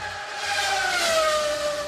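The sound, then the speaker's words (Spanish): A Formula 1 race car engine screams at high revs, a sustained whining roar whose pitch dips slightly as it goes, loud with no voices; the noise of Formula 1 engines returning to Madrid. “Eso después de cuatro décadas sin el ruido de esos motores, pero ahora ya sí.”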